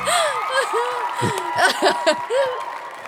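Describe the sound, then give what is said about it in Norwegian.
A crowd cheers and claps steadily for about three seconds, with rising whoops and shouted calls cutting through the continuous wash of applause. “Publikum jubler.”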